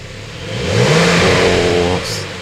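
A Porsche sports car engine revs up on a city street, its pitch climbing then holding in a loud, throaty roar before easing off, with a brief whoosh near the end.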